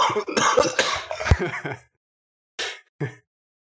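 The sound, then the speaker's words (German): A harsh, rasping stretch of throat clearing and coughing, then a brief pause and two short, sharp coughs to finish. “ja, kommt gleich mal Hustenanfall dabei, ey, das ist doch.”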